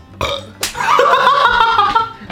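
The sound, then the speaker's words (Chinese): A loud, drawn-out burp with a gravelly, voiced rumble, preceded by a shorter croaking belch, filling about two seconds with no speech; repeated burping after eating too much during a livestream and then showering. “刚刚直播吃太饱，洗了澡之后在狂打嗝。”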